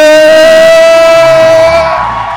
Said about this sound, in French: des cris de joie Alléluia